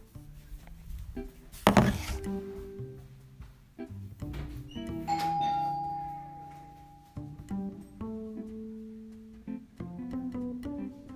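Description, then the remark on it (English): A doorbell chimes with sustained, ringing tones that fade slowly, preceded by a sharp knock or clatter and followed by softer thumps and shuffling; a young girl playing outside rings the doorbell. “my little sister's outside playing basketball with my family, and uh, they she loves ringing the doorbell.”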